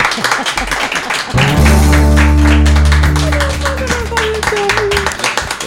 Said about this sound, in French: Allez, on peut applaudir nos deux invités.